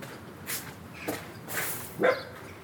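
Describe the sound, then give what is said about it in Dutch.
A dog gives a few short, spaced barks or yips, about four in total, fairly quiet, with soft outdoor background noise between them. “Met een hond. Hoi hond”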